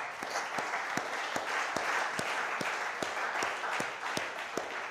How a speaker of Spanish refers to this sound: Amén. Dele un aplauso a Dios, por favor.